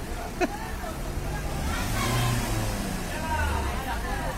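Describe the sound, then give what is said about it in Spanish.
Steady street traffic with a car engine rumbling and revving up, its pitch rising and falling, alongside a low murmur of indistinct voices. “Claro y al final termina parando los coches.”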